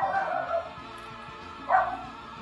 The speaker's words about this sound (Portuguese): É, mas é o meu cachorro vai começar aqui. Já tá se coçando ali pra, pra, pra latir também.